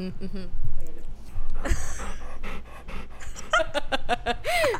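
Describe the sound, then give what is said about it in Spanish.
A dog that has come into a bedroom pants rapidly and steadily, with quick breathy huffs in a repeating rhythm and a brief high whine near the end, while a person's voice is faintly audible. “entró un perro, entró un perro a tu cuarto.”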